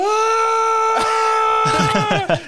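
A man lets out a long, loud, sustained scream in a scene where the Empire is chasing after Bix; it holds steady, then breaks into ragged, shaking cries near the end, intense with no other sounds.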